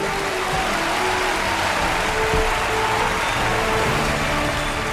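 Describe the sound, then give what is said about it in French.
An audience at la petite Maison Bleue applauds steadily for about five seconds, a dense, even wash of many hands clapping at a constant loudness with no voices over it. “Mesdames et messieurs, je veux que vous applaudissez très fort la superstar de la petite Maison Bleue,”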